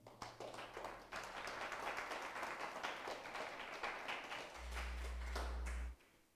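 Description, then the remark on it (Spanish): A church audience claps as an offering of applause to the Lord, steady, dense, continuous applause with many overlapping sharp hand claps, while a low sustained organ-like hum swells underneath toward the end before cutting off. “qué no le da una ofrenda de palmas al Señor?”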